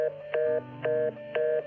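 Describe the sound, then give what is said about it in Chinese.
A telephone hang-up tone: three short, steady mid-pitched electronic beeps repeating at an even rhythm, with brief gaps between them and no one speaking. “说完，他便挂了电话。”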